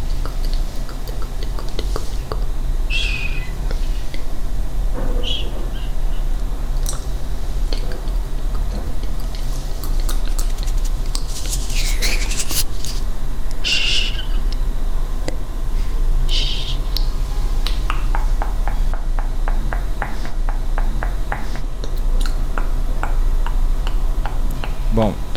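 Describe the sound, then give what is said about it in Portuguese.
A woman's crisp mouth noises and finger snaps in an ASMR video crackle in irregular bursts, with quick wet clicks and sharper pops scattered over a steady low hum. “Ela faz barulhos com a boca, com os dedos, estala os dedos e o, o, o escambau.”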